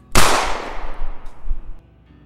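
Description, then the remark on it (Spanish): A single sharp gunshot cracks out loudly, its broad blast decaying over a second or so with a rumbling low-end tail and no voices present. “Este balazo atraviesa la carne y la criatura sale por su espalda.”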